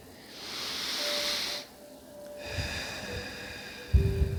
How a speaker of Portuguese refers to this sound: Acalmando a nossa respiração, respire profundamente.